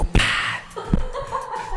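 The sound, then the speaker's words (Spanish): A voice imitates a whip lash: one sharp crack followed by a breathy hiss, then some soft vocal sounds and light chuckling trailing off. “Hay una parte en la que dice, mira, mira, aquí como que hasta da latigazos de...”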